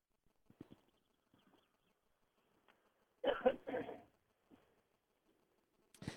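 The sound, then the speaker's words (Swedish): Faint, distant bird chirps come and go against a quiet outdoor background at a car rally, with one louder, brief burst of calls in the middle and another right at the end; the sun is not shining much. “Ja, på håll hör man eh, att, att det är rallybilar, men man hör också att det är fåglar.”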